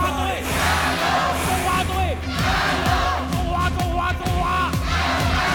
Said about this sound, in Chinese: 在现场三万多名观众的欢呼声中，比赛即将拉开序幕。在观众席上，两边的加油团壁垒分明，情绪激昂的分庭抗礼，各自挥舞着国旗，为自己国家的球队呐喊加油。